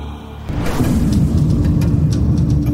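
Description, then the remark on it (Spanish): Heavy, booming pounding on a door begins after a short quiet moment, loud, with repeated deep thuds blurring into a continuous low rumble. “Estás fingiendo no escuchar esos golpes que están a punto de derribar tu puerta, porque esto es nuevamente un sueño.”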